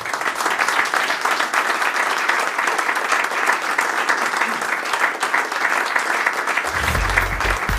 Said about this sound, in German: Und äh, ich würde sagen, jetzt machen wir im Prinzip Doppelapplaus.